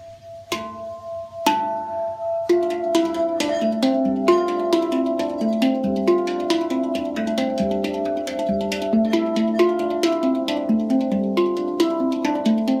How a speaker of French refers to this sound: Bon bah c'est du hang drum, hein, en effet. Le mec avec sa copine, ils en ont chacun un, et puis voilà. Sauf que non. La fille a fait chanter un bol tibétain d'abord, et le mec, il enchaîne avec son hang drum.